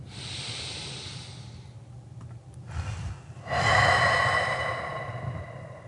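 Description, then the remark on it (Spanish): Slow, deep relaxation breathing: a long airy exhale, a pause, a quick inhale, then another long, full exhale. No one speaks. “Todo eso entra en práctica y empieza siempre con el uso de la respiración.”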